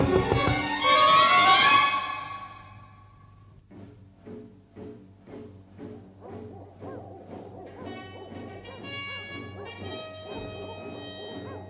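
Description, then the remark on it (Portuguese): After a loud crashing burst, a pack of hunting dogs barks and bays repeatedly, their calls overlapping in an uneven rhythm, some drawn out almost like howls. “Mas parecem latidos de cães de caça.”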